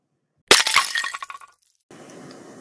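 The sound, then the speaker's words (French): A clay pot shatters with a sharp, loud crack, quickly followed by a second impact and a brief clatter of fragments settling, then a soft, steady hiss. “Le pot de terre en souffre. Il n'eut pas fait cent pas que par son compagnon, il fut mis en éclat, sans qu'il eût lieu de se plaindre.”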